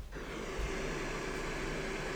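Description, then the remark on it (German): A recorded electric fan sound used as white noise: a steady whoosh runs evenly for a couple of seconds, broad and constant with a faint low hum underneath, no voices or other sounds. “Das Ventilator.”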